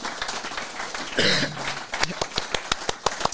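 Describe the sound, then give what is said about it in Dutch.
Clapping from a small group for the volunteers and board of Bills, dense at first and then thinning into distinct, sharp claps in a loose rhythm, with a brief voice cutting through partway. “Eh, dan wil ik graag een groot applaus voor de vrijwilligers en het bestuur van Bills bij deze.”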